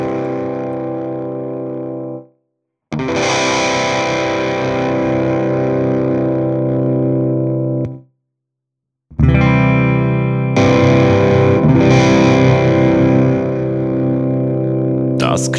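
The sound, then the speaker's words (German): Overdriven electric guitar chords played through a floor overdrive pedal ring out in three loud bursts separated by brief silences, each sustained with a gritty, saturated tone and dense harmonics, with no talking. “ob man eine neutrale Verstärkung aus so einem äh, Bodenzerrer rausholen kann”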